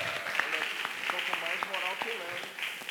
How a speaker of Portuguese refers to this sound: E qualquer os aplausos, os aplausos, claro.